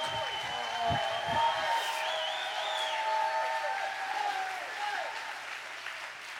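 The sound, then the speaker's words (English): An audience claps hands in worship in a dense, steady roar while many voices shout and cry out over it, loud and sustained throughout, easing slightly toward the end. “Because when you clap and you shout and you worship, you give the devil a nightmare.”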